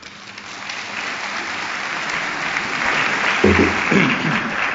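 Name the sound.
theatre audience applause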